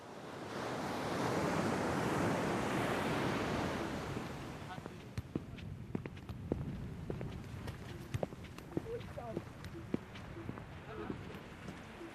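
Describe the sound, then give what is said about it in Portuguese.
Wind-driven sea waves with lines of white foam surge in a loud, rushing wash over the first few seconds, then recede into a softer, windy backdrop dotted with scattered sharp clicks and crunches. “Caminhamos em frente, deixando um rastro de pegadas pela areia, e eis que, com o passar do tempo, o vento traz ao mar os chamados carneirinhos. No vasto azul, há ondas de espuma branca alinhadas que fazem lembrar o pelo dos carneiros”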